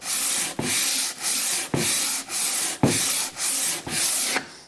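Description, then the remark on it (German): Steady back-and-forth sanding strokes of sandpaper wrapped around a sanding block rubbing over a wood surface, a dense gritty hiss in even rhythm with brief pauses between about eight passes, fairly loud. “Das legen wir jetzt um den Schleifklotz außen rum und dann kannst du damit einfach mal über die Fläche drüber.”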